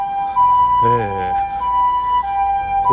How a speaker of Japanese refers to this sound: なんや救急車が走ってるぞ 大丈夫かなはい、えー、ちょっと今救急車が横を通り抜けますはいちょっとうるさくなりますが